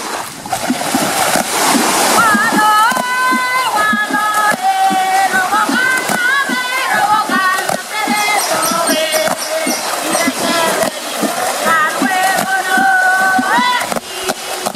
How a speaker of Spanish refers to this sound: El agua es utilizada como un instrumento de percusión que acompaña el canto de las mujeres que habitan las islas